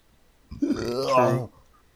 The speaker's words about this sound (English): Sorry about that, ma'am. Um, I have uh, uh, burp Tourette's.